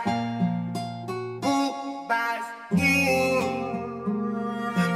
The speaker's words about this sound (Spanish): El tema se convirtió en un boom con rap. Con rap.